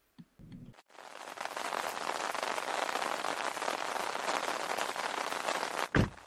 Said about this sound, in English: Ooh, it's really coming down out here. I was really hoping the rain held off until we made it home. Yes, it's really coming down. I didn't know it was going to be raining like this.